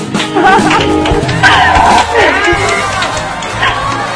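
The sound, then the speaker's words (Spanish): A crowd cheers and claps steadily, with many overlapping voices shouting and whooping over a dense wash of applause that stays loud for the whole moment. “Este aplauso es para ti.”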